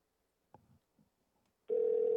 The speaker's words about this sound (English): There we go. It's ringing now, at least.